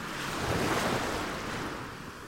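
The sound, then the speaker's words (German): A surf-like rushing wash, made with plastic bottles filled with seawater on a homemade rack to imitate sea waves, swells gently and then eases off over a couple of seconds. There is no talking. “So klingt das Meer.”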